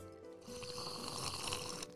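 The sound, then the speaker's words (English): A loud slurp of a drink into a microphone, a continuous airy, wet sucking sound lasting a second or two, with no talking over it. “Food noises, food food noises are different than drink noises. So slurping is okay.”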